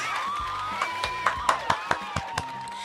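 A burst of applause with cheering: a string of sharp, separate claps about every quarter second, over sustained high whooping and whistle-like cheers from a small crowd.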